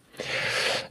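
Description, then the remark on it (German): A single sneeze, a breathy, hissing burst of air that swells quickly, holds for about half a second, then fades. No one speaks over it. “Ähm, Gesundheit. Ja, Gesundheit.”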